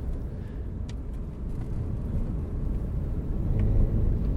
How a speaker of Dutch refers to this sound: zit verslaggever Sander Dekker opnieuw in de auto naar Ruinewold